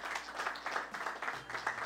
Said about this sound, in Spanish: Amén. Un fuerte aplauso para nuestro Señor, mis hermanos.